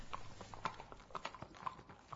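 Horse hooves clip-clop in a steady, even rhythm, each ringing knock landing about twice a second over a faint background hiss, fairly soft.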